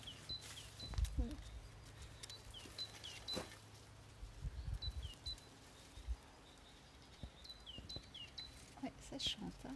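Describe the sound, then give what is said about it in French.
Birds sing outdoors under a grey midwinter sky with scattered high chirps and short trills repeating throughout, fairly faint, over a low background rumble and occasional soft handling noises. “ça chante carrément.”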